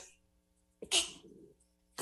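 A single sharp sneeze bursts out after a quiet pause, loud and hissy at first, then trailing off into a brief breathy tail.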